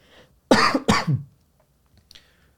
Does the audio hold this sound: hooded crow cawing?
no